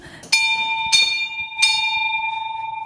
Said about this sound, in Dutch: Want er hangt hier een gigantische deurbel.